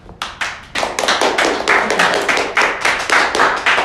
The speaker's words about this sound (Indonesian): Tepuk tangan.